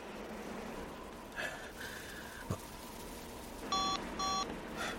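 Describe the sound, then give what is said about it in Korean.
Two short electronic beeps from a mobile phone dialing a call during heavy snow in an area with no signal or service, sounding in quick succession near the end, clear tones over a quiet background hiss, with a couple of faint earlier blips. “다급하게 지점장에게 전화를 걸어봤다.”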